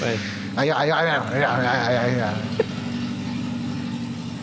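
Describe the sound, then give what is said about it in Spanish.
A car engine labors and rumbles as it struggles to start, its low steady drone running throughout, with a brief knock partway through and people talking over it early on. “Creo que eso costó arrancarlo.”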